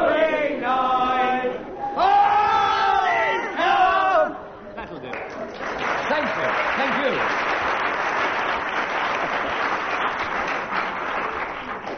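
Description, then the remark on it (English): A few seconds of voices, Barry Cryer and the audience, singing a drawn-out phrase of 'Silent Night' with Colin Sell on piano give way to steady, sustained audience applause, a dense crackle of many hands with some chatter, continuing to the end. “Some of that applause must go to uh, Colin Sell at the piano there, who was given no cue whatsoever and came in and came in as a result late.”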